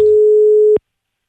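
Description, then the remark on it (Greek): A single steady telephone busy tone, a flat mid-pitched beep holding loud for under a second before cutting off abruptly into silence. “Είναι ακόμη συνδεδεμένοι.”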